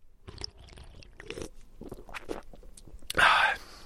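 Wet mouth sounds of someone gulping beer, a few small swallows in a row, ending with a louder, breathy exhale after the last gulp.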